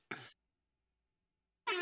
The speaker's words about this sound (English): That was. that was such a good air horn, man. I like the delay on it as well.